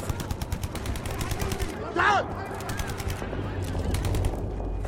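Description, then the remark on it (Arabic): Kalashnikov rifle gunfire from gunmen who have stopped a car on the road to Basra province rattles in rapid, evenly spaced bursts of sharp cracks throughout, over a low rumble, with a brief wavering, tonal cry cutting through midway. “يوقفونها وينزلون بأسلحة الكلاشنكوف”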